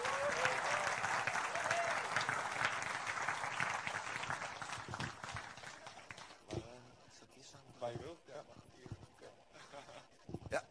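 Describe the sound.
A crowd claps loudly and continuously for several seconds, then the applause thins out into scattered claps as a voice begins speaking near the end.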